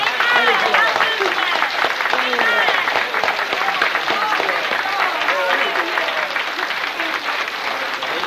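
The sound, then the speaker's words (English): An audience claps for Jesus, loudly and continuously, a dense wash of many hands with voices cheering and calling out throughout. “Now let's see how you can clap for Jesus.”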